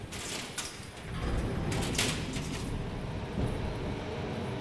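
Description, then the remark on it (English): Loud, dense machinery noise inside the Barkers factory, which processes fruit: a steady mechanical roar and clatter that swells after the first second and runs on continuously, with hissing bursts riding on top and no voices. “it's too loud inside the factory for my sound device.”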